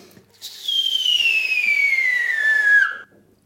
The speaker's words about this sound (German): Und die Raketen zünden lassen.